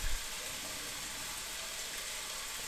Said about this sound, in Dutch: En probeer je voor te stellen dat je in een enorm bos staat, te midden van een storm die woedt. Je hoort de regen op de achtergrond.